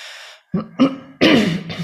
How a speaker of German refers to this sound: Ich muss noch mal einmal mich räuspern.